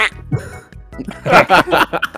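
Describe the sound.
A person imitates a duck's quack with a string of raspy, nasal honks, fairly loud, the bursts coming in quick uneven succession over about two seconds.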